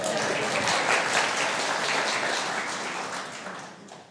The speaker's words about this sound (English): Um, oh, hey, hey, let's give the guys a round of applause.